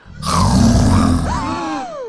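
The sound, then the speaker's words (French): A loud creature roar from a little monster at a village carnival: a deep, rough growl for about a second that slides into a rising then falling tonal howl before fading out. “Mais son rugissement est un peu effrayant.”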